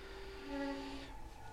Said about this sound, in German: Oh, das ist ja gerade noch mal grimpfig ausgegangen. Oh. Naja, hört ihr es knarzen?